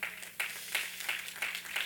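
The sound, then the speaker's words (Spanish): An audience applauds the Lord during a morning church sermon, a steady wash of many hands clapping at moderate volume, with no voices over it. “¿Quién le da un aplauso al Señor esta mañana?”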